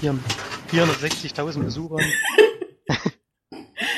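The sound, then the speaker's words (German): The speaker's chair creaks in a short, scratchy burst right after a man speaks, followed by a brief second squeak and a moment of quiet before talking resumes. “Das ist der Stuhl. Das ist mein Stuhl.”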